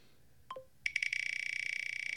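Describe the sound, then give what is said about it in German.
A prize wheel, spun again, clicks rapidly and evenly as it slows down under a bright, steady electronic tone, after a short descending chirp. No one speaks. “dann drehen wir einfach das Rad noch einmal für, für uns beide”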